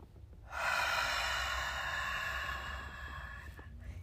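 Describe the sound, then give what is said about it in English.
A single long, forceful exhale pushed hard through the mouth during a breathing exercise for anxiety, forcing out the last of the breath: a breathy rush lasting about three seconds before trailing off into quiet. “and literally you can't get the rest out, but you're pushing it. Okay, that's what it sounds like.”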